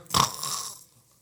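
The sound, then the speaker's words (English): A voice makes one short, raspy snoring noise, a brief snort that trails off within a second, fairly loud, with no words around it. “they're catching flies. They're snoring away.”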